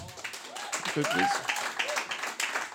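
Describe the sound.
A room full of people applauds, a steady wash of clapping lasting a few seconds, with a voice briefly speaking over the noise.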